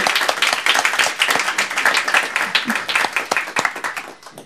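A crowd applauds steadily throughout the credits of the radio show Radio Total Normal, a dense patter of many hands clapping at fairly even loudness, with a few sharper claps standing out before it thins slightly at the end.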